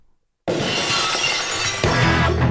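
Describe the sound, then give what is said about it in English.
A loud, sudden crash of glass shattering, bursting in after near silence and sustaining as a bright, dense spray of breaking shards, with a second surge near the end. “Now let's just hear it one more time. This glass breaking.”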